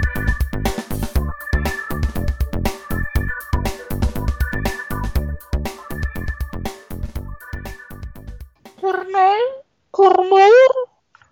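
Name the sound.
cat meowing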